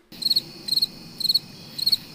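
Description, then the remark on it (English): Crickets chirp, played in on the E Block Radio show, in a steady rhythm: four evenly spaced bursts of rapid trills, clear over a faint low background hum, with no voices. “I got I got my crickets, coming in, crickets, and shit, right?”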